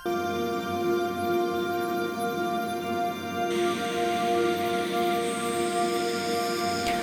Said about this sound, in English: So this, what you're hearing now is a combination. This is actually the wind chimes, but like processed for days.